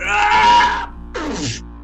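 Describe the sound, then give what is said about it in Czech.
A voice imitates a wizard's loud, agonized scream: a strained, drawn-out cry, a short break, then a second wail that slides downward into a groaning moan, intense. “Ty vidíš, slyšíš takový jako hrozně velký křik mm, toho vašeho kouzelníka.”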